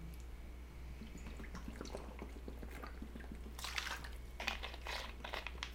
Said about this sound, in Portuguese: Enquanto você está aí, deixa eu tomar um gole de água.